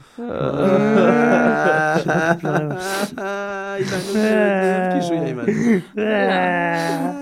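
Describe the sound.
Several voices wail together in exaggerated, mock sobbing after a count of three, loud, with wavering drawn-out cries that pause briefly a few times over about five seconds.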